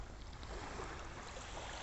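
A steady, broad wash of ocean surf rolls continuously onto a beach at night, a soft hiss with a low rumble underneath and no voices.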